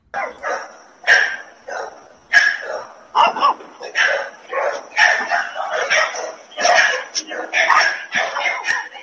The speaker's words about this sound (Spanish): Esto fue un evento en, la ciudad de Miami, en la ciudad de Miami, donde un policía, un policía fue a una casa donde eh, hubo una denuncia de un perro que estaba ladrando y sucedió esto.